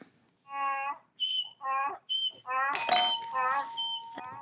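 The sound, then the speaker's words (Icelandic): A donkey brays, loud rasping hee-haw cycles alternating between low groaning honks and sharp high squeals, with a brief noisy crash partway through. “Asni var það og við förum strax í næsta dæmi.”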